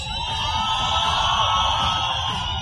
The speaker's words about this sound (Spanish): Yo creo que pueden gritar más duro. ¿Dónde están las personas que están dispuestas a enfrentar sus miedos?